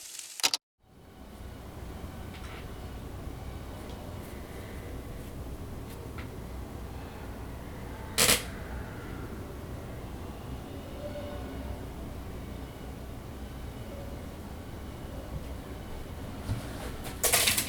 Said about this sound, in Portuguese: Eu gravei isso com o meu gravador, o Zoom H2N, em cima da mesa do meu computador. E dá para escutar. Som de trânsito de leve, barulho de obra, alguma coisa que parece uma furadeira, vento, vozes abafadas, minha cadeira, o Milo, meu cachorro